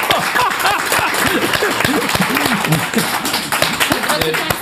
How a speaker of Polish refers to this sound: E, no to ludzie coraz bardziej rozgrzani, a jak powiedziałem i jeszcze odegrałem scenkę jak zakupu działki przez księdza, no to wszyscy zaczęli bić brawo.